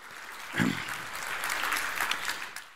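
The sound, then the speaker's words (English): A crowd in Elk Grove breaks into applause for the Lord, a dense, steady wash of many hands clapping that swells after a brief onset and holds at a fairly even level before beginning to taper. “But give the Lord a, a great hand clap if, you if you're thankful that He can deliver you from whatever you might be going through.”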